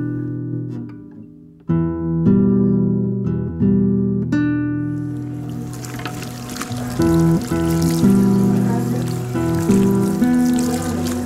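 Sustained tonal notes play at first, then a steady rush of warm running water starts midway as a woman's hair is washed, continuing fairly loud to the end, with no talking.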